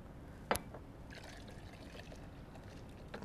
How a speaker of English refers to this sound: I'm going to, I'm going to pour this off. You don't want to really look at this, but I'm going to just pour it off in here so you'll see how, just how easily this is really cleaned up.